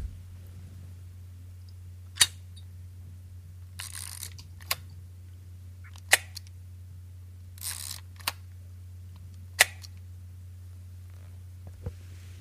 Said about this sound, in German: Im Geräuschrätsel hört man die EXA 1a mit Lichtschacht. Zuerst das Ausklappen des Lichtschachts und dann das übliche Ritsch-Ratsch-Klick